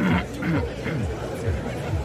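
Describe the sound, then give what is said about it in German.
A very loud, drawn-out burp of 118 decibels by a young man on stage at a burping festival in Italy, rough and roaring across about two seconds, with an audience murmuring and chattering around it. “118 Dezibel laut Gorbs, das hat der junge Mann.”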